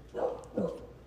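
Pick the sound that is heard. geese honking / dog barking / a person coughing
dog barking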